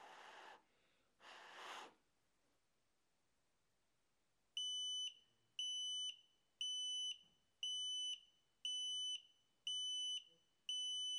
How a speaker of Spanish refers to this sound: tenemos un sensor de calidad de aire de la marca Eiman y podremos modificar con sus botones físicos algunos ajustes como el nivel de alerta de CO2. Podemos decidir que nos alerta con su alarma sonora cuando el nivel de CO2 sobrepasa 1200 ppm.